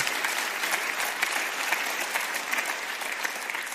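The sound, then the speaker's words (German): A crowd claps steadily and densely in applause for Jesus, a continuous wash of many hands applauding at an even loudness with no voices standing out. “Komm, wir geben Jesus mal einen mächtigen Applaus für sein Vorbild.”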